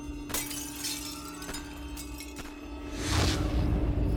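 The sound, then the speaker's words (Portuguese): A window pane shatters in a house at night in a loud, sharp crash, followed by scattered clinks and tinkling shards, then a heavier crashing burst with a low rumble near the end. “Ele foi acordado abruptamente no meio da noite ao som de tiros de pistola, gritos e vidraça quebrada.”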